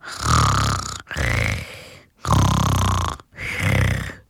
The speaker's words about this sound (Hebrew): היא התקרבלה מתחת לסנטר השעיר שלו, ומיד נרדמה בזרועותיו. זאביק הרגיש מוזר. הוא מעולם לא התחבק עם ארוחת הערב שלו. ופתאום הוא כבר לא היה כל כך רעב. הכבשה הקטנה נחרה בעדינות באוזנו.